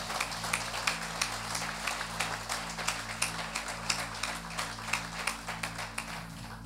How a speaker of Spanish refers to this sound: Denle ese fuerte aplauso al Señor. Aleluya.